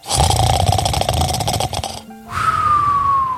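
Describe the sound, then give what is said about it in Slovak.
A voice imitates a hibernating bear's contented snoring: a long, loud, rattling snore, a brief pause, then a whistling, slowly falling exhale. “spokojne odfúkoval.”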